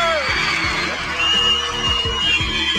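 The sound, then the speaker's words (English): A large basketball arena crowd at a Lakers game cheers loudly and continuously as Kobe Bryant builds up to 47 points, with scattered whoops and yells rising out of a dense roar of many voices, swelling slightly partway through. “And the crowd's starting to sense it too as he builds up to 47 now.”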